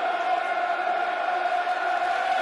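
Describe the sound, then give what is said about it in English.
A large stadium crowd of Lions fans at a football match against Cardiff chanting in a deep, sustained drone, a steady, unbroken roar of many voices holding the same low note at an even, fairly loud level with no pauses. “The ball sounds, the monk chant, call it what you will. The mighty noise.”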